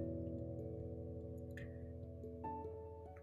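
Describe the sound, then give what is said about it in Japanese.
A washing machine fills with water: a steady, fairly loud mechanical hum with a faint rushing hiss beneath it, continuous throughout, with a brief higher squeal partway through. “あの洗濯機に給水してる音ですね。”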